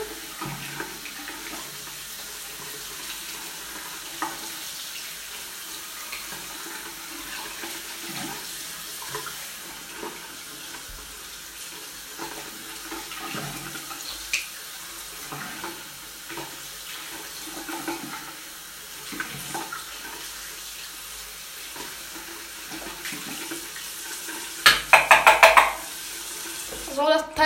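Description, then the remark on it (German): Steady running tap water splashes into a container and over hands being rinsed, a continuous hissing wash with shifting gurgles and a few brief clinks and sharper splashes near the end. “Leute, langsam ist, ist der Behälter ausgewaschen.”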